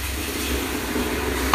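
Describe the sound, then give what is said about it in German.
A steady hiss of water sizzling as a sauna infusion with Swiss stone pine and eucalyptus is poured onto hot sauna stones, running through the whole stretch and ending with a brief sharper clatter. “auf die heißen Steine wird da aufgegossen”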